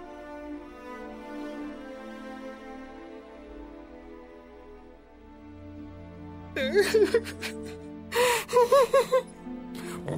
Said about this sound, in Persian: ما کار جواب نمی دهد بی حرکت ایستاده است بعد دستمالی از جیب در می آورد و گریه سر می دهد